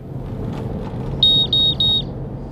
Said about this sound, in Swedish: Med pipande dosimeter fortsätter vi färden upp längs kusten förbi det havererade kärnkraftverket och upp till staden Minamisoma.